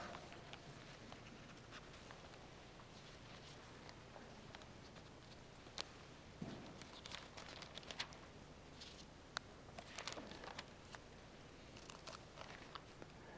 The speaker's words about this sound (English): I make no apologies for making you look systematically in the Bible at these things. And I love hear the sound of rustling pages. That's worship in my mind.